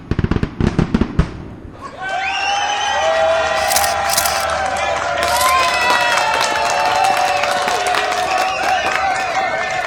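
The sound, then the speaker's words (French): A crowd, won over by a speech, breaks into loud cheering and applause after a few sharp cracks, with shrill whistles and cries ringing out over a steady roar that continues throughout; broadcast on the radio programme Ma Parole. “Chères auditrices, chers auditeurs, vous venez d'entendre un discours poignant. La foule est conquise.”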